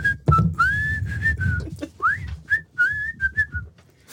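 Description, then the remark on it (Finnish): A person whistles a short melodic tune, with sliding and held notes in quick phrases, accompanied by low background noise and no talking. “Me ollaan tätä vihellysommaa tehty aikaisemmissa jaksoissa.”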